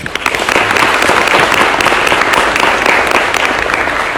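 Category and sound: crowd, audience applause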